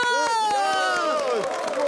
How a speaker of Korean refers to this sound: 자, 어제 고생하고 역전의 드라마를 연출한 세 선수에게 박수! 너언 박수 안 치냐? 박수!